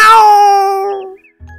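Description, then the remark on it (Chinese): A single loud, drawn-out cat meow with a bright, nasal tone that slowly fades over about a second, followed by a brief quiet gap and a faint low hum, at the start of a reading of the picture book 讨厌的肥猫 (The Fat Cat) by Pat Thomson. “今天要讲的绘本故事的名字叫做《讨厌的肥猫》。喵。”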